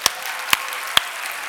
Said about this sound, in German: Komm, wir geben ihm Applaus.